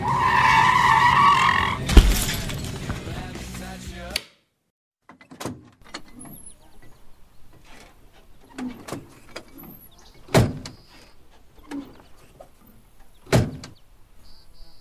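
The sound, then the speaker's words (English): A loud, sustained tire screech from a skidding truck, punctuated by a sharp crash about halfway through as it hits a buck deer, then abrupt quiet with scattered clunks and rattling debris. “My truck! oh, man, your truck ain't pretty no more.”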